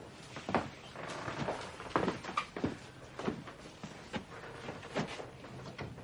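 household object, door opening and closing

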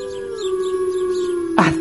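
animal, wolves howling

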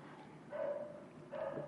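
animal, small dog barking

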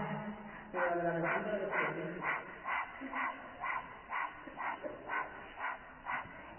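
human body sound, rapid panting breathing exercise

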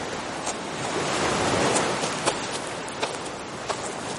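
ambience, waves on a beach

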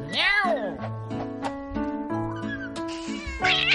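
animal, cat meowing

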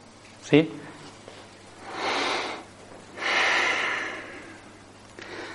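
human body sound, deep breath

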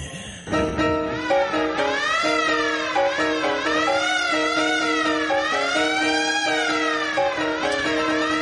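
signal or alarm, siren

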